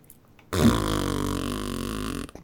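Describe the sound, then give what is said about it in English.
A voice imitates a dog farting with one long, buzzy, drawn-out blat lasting nearly two seconds, loud, following a brief silence, with no speech around it. “I'm more liable to fart than he is.”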